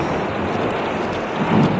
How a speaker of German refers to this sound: Das, das hört sich ja komisch an, ja? Was ist das für ein Rauschen? Wartet mal, bis der nächste Blitz kommt. Vielleicht können wir dann was sehen. Da! Eine Wasserfontäne. Eine Naturfontäne. Sie kommt direkt aus dem Fels.